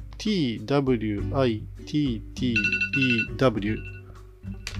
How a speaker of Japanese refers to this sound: あ、なんか今、アラームになっちゃいました。